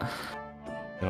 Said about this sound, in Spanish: Tenemos un gato pirata de fondo. Sí, tenemos un gato pirata, sí.